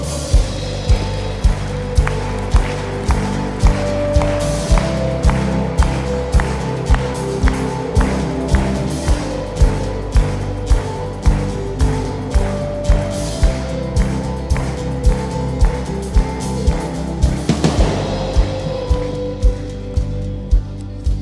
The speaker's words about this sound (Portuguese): Vamos receber essa família aí? Vamos aplaudir ao Senhor?